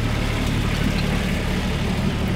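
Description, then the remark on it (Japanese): A small vacuum sanitation truck with a cute, minicar-like front and some liquid inside approaches, its engine rumbling steadily in a continuous low, throbbing drone at an even loudness throughout, with no voices. “ああ分かったえっと簡易衛生車だ多分おうん何か液体のようなものが中にありますよ”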